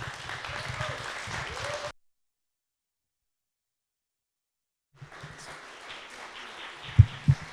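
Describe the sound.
An audience in downtown Manhattan stands and applauds steadily for about two seconds to welcome a speaker as he comes up, falls completely silent, then the clapping and cheering resume, mixed with voices and a couple of sharp louder thumps near the end.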